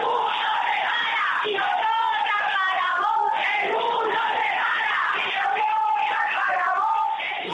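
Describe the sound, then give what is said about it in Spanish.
A large crowd at the start of a street protest march shouts and chants together, a dense, continuous wall of raised voices that stays loud and steady throughout, with overlapping yells and cries. “Y bueno, podemos escuchar eh, un poco los gritos de esta manifestación.”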